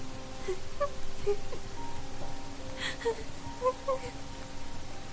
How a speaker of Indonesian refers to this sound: Namun, tiba-tiba ada suara wanita menangis di halaman.